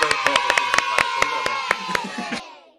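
A small audience applauds in quick, fairly steady claps over about two seconds, with voices cheering and whooping underneath, before the clapping fades out.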